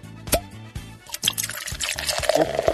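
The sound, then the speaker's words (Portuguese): Guinness, an Irish beer, pours into a glass, a gurgling, splashing stream with a few brief drips and fizzy bubbling, steady for a few seconds. “Tem Guinness, é Patrick's Day, né? que tem que tomar cerveja irlandesa, né?”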